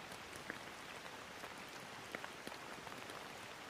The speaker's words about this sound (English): Enjoy a moment of feeling cozy and comfortable as you watch the rainstorm replenishing the landscape in front of you.